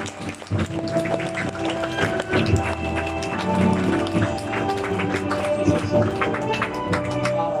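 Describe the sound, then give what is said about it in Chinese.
A large audience applauds steadily for several seconds, a dense, continuous patter of many hands clapping at once, with music playing underneath throughout, welcoming the dean of Julei Business School. “那首先呢，让我们所有的领导人调整好我们的坐姿，用热烈的掌声有请聚磊商学院院长”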